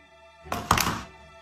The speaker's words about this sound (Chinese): 把电话哐仓这一撂下